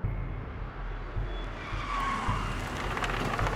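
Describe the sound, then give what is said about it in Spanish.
A car rolls in, its engine rumbling low and steady while the tires scrape faintly, slowing to pull over and park in a discreet spot along a trail. No one speaks. “Me estaciono en un lugar discreto a lo largo del sendero.”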